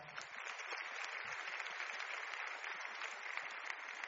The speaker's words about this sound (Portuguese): E vocês vão dar uma salva de palmas para esse pessoal.